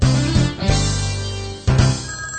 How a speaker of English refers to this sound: The phone rings in the house.